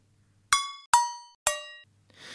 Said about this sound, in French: Puisque c'est d'actualité, écoutons donc une casserole de 7 cm, de 8 cm et de 10 cm de rayon.